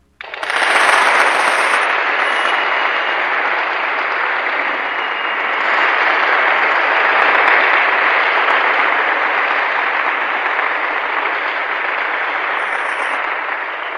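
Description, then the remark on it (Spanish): A crowd claps steadily for about fourteen seconds, a dense, loud wash of hand claps with no voices, holding an even level from start to finish. “¡Aplausos, por favor!”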